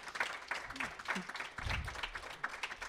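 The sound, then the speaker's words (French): An audience claps steadily for a few seconds to welcome two invited guests one evening, a dense crackle of many hands. Low murmuring voices and a brief spoken sound are heard underneath. “Donc on peut leur donner une grande main d'applaudissement.”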